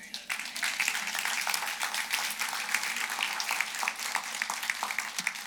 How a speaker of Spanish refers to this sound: Vamos a ponernos de pie esta tarde, damos gracias al Señor, un aplauso a Cristo.